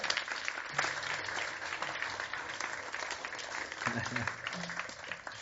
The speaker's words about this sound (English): And these two young men did a stand up comedy without preparing at all for 15 minutes. So please give them applause.